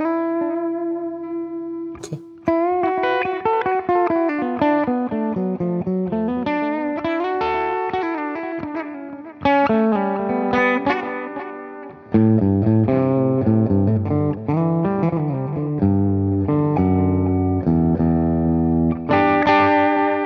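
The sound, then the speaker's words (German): A distorted electric guitar lead plays sustained, singing melodic phrases on its own while an equalizer boosting the mids is switched on and off during playing, the tone sounding fuller and thicker with the EQ on than with it off. “Das war dann viel fetter mit dem EQ.”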